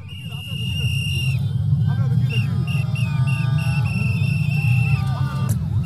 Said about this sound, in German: die Siegesparade nach diesem Triumph, da können wir auch nochmal ganz kurz reinhören. Äh, also fantastische Bilder, kann ich nur jedem empfehlen, dass sich nochmal reinzufahren, äh, was da los war in, in Dakar, in der Hauptstadt vom Senegal.